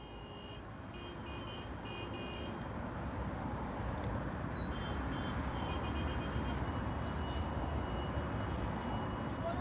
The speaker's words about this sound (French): Une voiture passe.